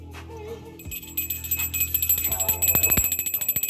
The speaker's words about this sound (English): I'm sorry, I wasn't ringing it right. There we go. There we go. We're ringing it right. We're ringing the truth bell and right.